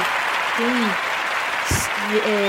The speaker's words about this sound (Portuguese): Então, uma salva de palmas para quem vota correto. É. para quem vota certo.